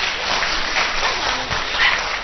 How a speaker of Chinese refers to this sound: 哎呀，掌声，掌声！我来电了，再来一个。